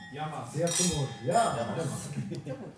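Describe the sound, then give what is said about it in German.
Several wine glasses clink together in a toast with the first wine at a biblical wine tasting in a parish hall, with bright ringing tones, while a group of people chatter and murmur. “Zu Beginn wird erstmal mit dem ersten Wein angestoßen.”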